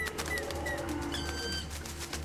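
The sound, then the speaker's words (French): A bird bursts up out of a bush, with a few short, high chirping calls over a steady low background rumble; no one speaks. “Soudain, un oiseau s'envole d'un buisson juste sous son nez, détournant ainsi son attention.”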